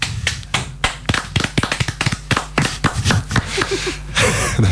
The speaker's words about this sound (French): Applaudissons tous ensemble.